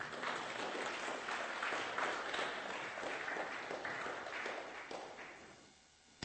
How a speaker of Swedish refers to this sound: Bra, tack. Om du, ja, ni får gärna applådera.